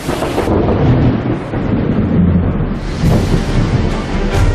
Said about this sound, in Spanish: ahora mismo en este momento llueve en el Amboseli, cerca del Kilimanjaro. Allí ahora es temporada de lluvias y empezaría a serlo de turistas.